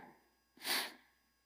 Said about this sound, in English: and of all days for me to be sniffling, just want you to know, once I start weeping just a little bit, I'm in trouble.